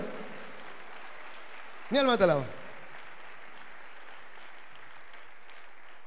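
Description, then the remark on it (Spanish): An audience applauds as praise to God Almighty in a steady, dense wash of clapping that continues throughout, while a single voice briefly speaks over it near the start. “Haz un aplauso, alabanza grande al Dios Todopoderoso.”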